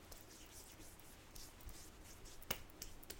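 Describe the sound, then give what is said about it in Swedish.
A person slaps their own face while applying a skincare product: a sharp slap of a hand against skin, followed moments later by a softer second pat, set against a quiet, faintly rustling background with no talking. “Gud, jag typ slår mitt ansikte.”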